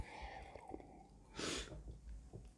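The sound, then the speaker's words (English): A single quick sip of orange juice, a short breathy slurp in the middle of an otherwise quiet moment with faint background noise. “Let me zip this orange juice inappropriately.”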